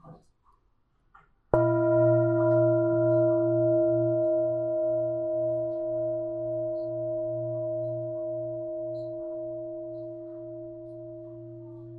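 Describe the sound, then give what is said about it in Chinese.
An Ulabati singing bowl, with a flat, wide body, is struck once after a brief quiet moment, releasing a deep, resonant ringing tone with a slow, pulsing wobble that sustains and gradually fades over about ten seconds. “那感觉比较像是。呃，寺庙里面的钟的感觉，它是一种下沉的声音感。”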